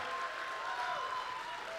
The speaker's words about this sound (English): Come on, if you love the house of God, let's give him a big clap of praise. Come on. If you value the house of God.